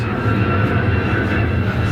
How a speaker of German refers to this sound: jetzt, also wer diesem Interview folgt, der hört immer mal wieder Flugzeuge über uns wegfliegen, weil wir in der Einflugschneise zum Flughafen liegen. Diese Flugzeuge fliegen aber nicht zufällig.